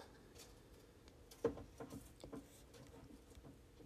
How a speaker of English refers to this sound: If y'all can hear this in the background, this is my turtle. Um, I think he's just amped because he hears me hype.